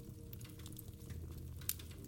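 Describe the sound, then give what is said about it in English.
A crackling fire of bright orange flames in a hearth on a cold, snowy winter's night, a soft low rumble beneath scattered sharp pops and snaps, one brighter crack standing out near the end; steady, with no voices. “Sound design: crackling fireplace”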